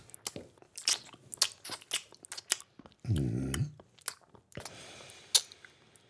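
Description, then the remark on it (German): Crunchy chewing and swallowing of food close to a microphone, with repeated sharp, irregular bites and crackles, interrupted midway by a short hummed vocal sound before the munching resumes. “Hört man das Schlucken?”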